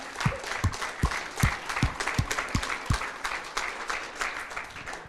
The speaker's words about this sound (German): Und lass uns mal einen fetten Applaus geben.